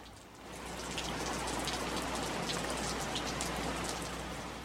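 Steady rain pours down, a dense, continuous hiss with scattered drops pattering on a hard surface, fading in quickly and holding an even, moderately loud level throughout.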